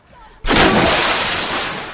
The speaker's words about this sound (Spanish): Bien buena bomba, eh.